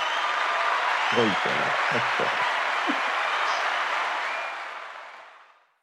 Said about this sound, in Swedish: utan den klarade ni med eh, bravur så ni får en liten applåd här.